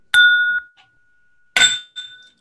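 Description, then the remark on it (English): Two hard glass impacts on a tabletop, each a sharp clank with a bright ringing tone that hangs briefly; the second strike is followed by a smaller clink. “yeah, it sounds like you dropped a a fucking Bailey's into an Irish car bomb right there.”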